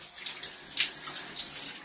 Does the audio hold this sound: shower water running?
yes